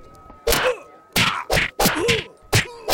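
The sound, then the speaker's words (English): A flurry of heavy punches lands on an old man in a fight, in quick, uneven succession. There are about five solid, loud thwacks, each followed by a pained male grunt or groan. “Wow, Punches is really letting the old man have it.”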